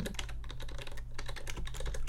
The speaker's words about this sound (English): it's a uh, clickety clack. Here we go with the keyboards again.